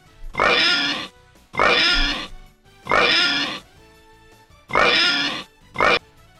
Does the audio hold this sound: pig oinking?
yes